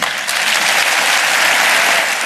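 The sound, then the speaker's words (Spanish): Sustained, loud applause from a parliament plenary session for Isabel Díaz Ayuso, a dense, steady wash of clapping at an even level with no voices standing out above it. “Tengo claro dónde está mi sitio en Madrid, ha repetido Isabel Díaz Ayuso entre los aplausos del plenario, algo que ha dejado satisfecha y aliviada a la dirección actual del Partido Popular.”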